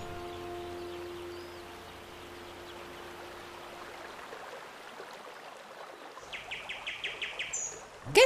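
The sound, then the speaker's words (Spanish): Birds chirp and sing outdoors over the steady rush of a flowing river, with a quick run of repeated bright chirps rising near the end; no one speaks. “Escucho los pájaros, pero lo que más me gusta es el río.”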